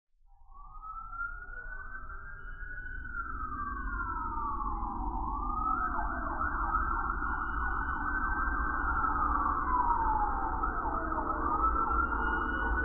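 Sirens of four police patrol cars wail steadily and loudly outside a house, their rising and falling tones overlapping over a low road rumble, swelling in from quiet with no one speaking.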